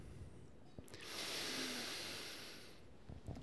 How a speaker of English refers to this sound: All right. Let's take a deep breath.